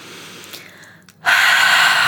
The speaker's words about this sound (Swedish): Ni som sitter där hemma nu, ni kan stänga munnen och så andas du genom näsan. Och Så känner du att du får lite värme sådär. Och så öppnar du munnen och andas ut stort genom munnen.